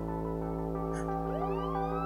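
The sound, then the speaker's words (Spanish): Police car sirens wail continuously as patrol cars surround a house, their pitch sweeping upward over a steady droning tone, moderately loud and sustained throughout with no voices. “¿Escuchas eso? ¿Son sirenas?”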